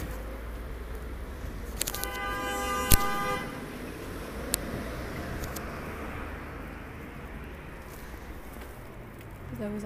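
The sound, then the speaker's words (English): A car horn sounds in a sustained blast amid busy traffic as other cars honk at an erratically driven car, heard by someone cycling, over a constant rush of wind and road noise, with a sharp knock and faint background voices. “like this really mad um, car that was like just going everywhere, and um, and the other cars weren't having it.”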